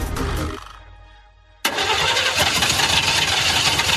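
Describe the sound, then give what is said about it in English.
A van engine cranks and fails to start: a rough whirring that fades into a dying hum, then an abrupt burst of loud, harsh, sustained grinding noise. No one speaks. “If your business relies on a van, that wouldn't sound good.”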